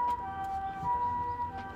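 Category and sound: vehicle, ambulance siren passing by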